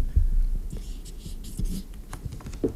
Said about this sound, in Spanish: Bueno, claro, escuchen, escuchen el sonido de la firma.